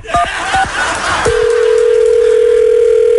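A telephone being dialed to call a woman's boyfriend: a quick series of short keypad beeps with clicks, then a loud, steady call tone holding one unwavering pitch until the end.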